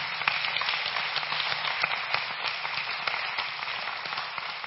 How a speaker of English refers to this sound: And then we have the 12, I'm not going to have them come up here, the 12 people that preach on Wednesdays. God bless you. You have kept, I mean, every Wednesday you come in here. Yes, please clap for them.